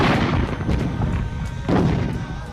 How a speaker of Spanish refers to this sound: Algunos aviones de Vietnam del Sur lanzan una bomba de napalm sobre la aldea de Trang Bang.